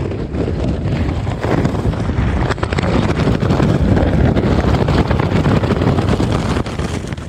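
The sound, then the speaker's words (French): Steady wind roars across the open desert at night, a broad rushing noise with gusty fluctuations and low rumbling buffeting, sustained and fairly loud throughout with no voices. “la première nuit, elle est assez particulière parce qu'on pendant, la nuit, j'entends un peu le, vent passer, j'imagine l'espace autour de moi, le désert qui se trouve tout autour de moi.”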